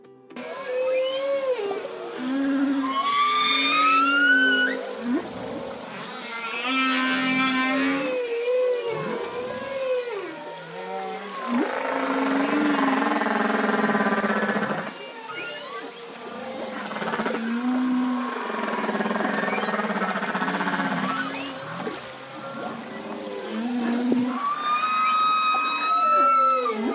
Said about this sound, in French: Dans cet épisode, vous aurez la chance d'entendre, en début, l'émouvante expression d'une baleine à bosse, puis, à la fin, le chant d'un orque.